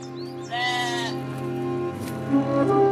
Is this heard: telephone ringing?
no